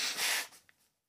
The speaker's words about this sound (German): Warte kurz, ich muss meine Nase putzen.